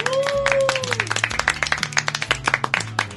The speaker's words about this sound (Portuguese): Palmas virtuais pra esse garoto. Palmas reais pra esse garoto.